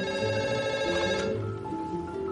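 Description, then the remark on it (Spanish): A telephone rings with a sustained electronic tone that shifts pitch partway through, steady and fairly loud, with no voices. “La pianista se levanta apresurada y entra en el baño mientras Elvira responde al teléfono visiblemente perjudicada.”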